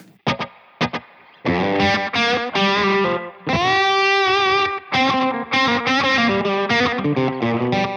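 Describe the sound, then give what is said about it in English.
A loud electric instrument with a short slapback delay plays a few choppy stabs, then rings out in sustained, buzzy chords and rapid runs, with no one talking. “I have another slap.”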